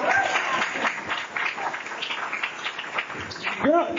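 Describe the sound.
Audience applause: dense, steady clapping that fills the whole four seconds at an even loudness, with voices mixed in and a short vocal cheer rising near the end.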